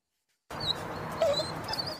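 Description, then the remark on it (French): Dogs at an SPA animal shelter in the Yvelines, France, whimper and yip in high, thin whines over a constant background of barking and kennel noise, starting abruptly after half a second of silence. “Chiens, chats ou encore lapins, tous attendent que vous les adoptiez.”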